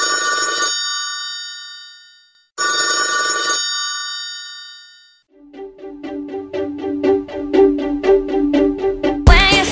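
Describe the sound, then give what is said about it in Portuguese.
A telephone bell rings in two long trilling bursts separated by silence, then a rapid rhythmic ringing pattern follows, loud, with no voices present. “depois da carta e do telégrafo, é, o que, é que a gente destaca de desenvolvimento tecnológico relacionado a, a meios de comunicação? Telefone, né, pessoal? Telefone.”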